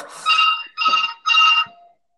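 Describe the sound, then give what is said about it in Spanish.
A telephone rings in three short bursts of harmonic trilling, evenly spaced and fairly loud, with a quieter tail after the last ring and no one speaking. “Perdón, pero el teléfono.”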